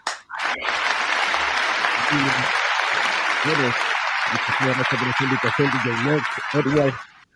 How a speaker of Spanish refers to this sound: Un abrazo, eh, un abrazo y un aplauso para el hombre.